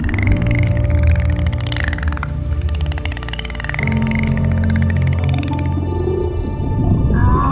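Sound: whale vocalizations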